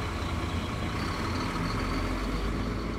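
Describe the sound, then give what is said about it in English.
A Greyhound bus engine idles in a steady, continuous low rumble with a faint hiss over it, unchanging throughout, with no voices. “the pair take the Greyhound bus from Chicago to Milwaukee and then a cab to a rundown part of town.”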